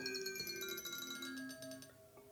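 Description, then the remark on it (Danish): A soft light-driven electronic tone with a mellow, marimba-like quality, its pitch wavering because the light supply is never steady, and shifting lower as it is put in heavy shade, playing steadily for a couple of seconds, with no one speaking. “Nu, nu, nu har den meget skygge, så, så nu bliver det dybt, ikke? Så lyder det næsten sådan helt marimba”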